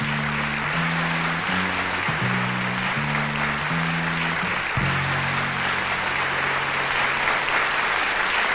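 An audience applauds steadily and loudly throughout, a dense wash of clapping over the song's final low chords, which step through a short sequence and then settle into one long held note.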